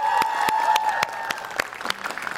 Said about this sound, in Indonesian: tepuk tangan dong